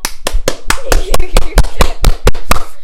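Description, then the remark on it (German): A single person claps their hands about a dozen times in a quick, steady rhythm, each clap sharp and loud, with a faint voice murmuring underneath. “Und ich habe gerade geklatscht.”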